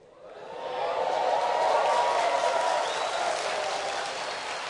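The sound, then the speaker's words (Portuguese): A large crowd of Flamengo football supporters erupts into loud, sustained cheering, the roar swelling quickly and holding steady throughout, with no distinct voices standing out. “Quando eu vejo essa manifestação da torcida do Flamengo, eu vejo o quanto preciso pregar o Evangelho.”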